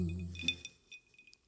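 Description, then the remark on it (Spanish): Glasses clink together in a toast, a few bright, ringing taps, the first the loudest, with a low murmur of voices just before. “Pues a ver, deja, vamos a hacer aquí un salud.”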